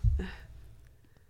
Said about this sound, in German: Was war das für da ein mysteriöses Heulen? Schon Hast du das Geräusch gehört? Ja, also, ihr habt es auf den Kopfhörern gut gehört. Ah, das ist ein Hund. Hundegebell.